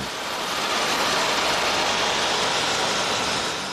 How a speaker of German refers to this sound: Sieben Meter tief dringt der Bohrer in die Wand ein.